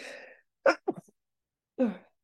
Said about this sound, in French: Je vais éternuer.